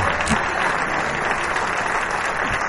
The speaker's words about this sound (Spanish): Amén. Creo que podemos darle un mejor aplauso al Señor. Amén. Gloria a Dios. Amén.